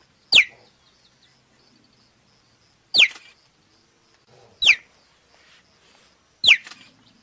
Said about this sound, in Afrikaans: So ja, jou cheetah is ook 'n groot kat, maar sy geluid wat hy maak is meer nou weer soos 'n 'n voël om dit so te stel.